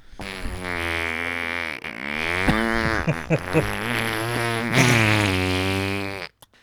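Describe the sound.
A person vocally imitates a long, drawn-out fart, a buzzy, wavering raspberry sustained for about six seconds, loud, with a little laughter mixed in.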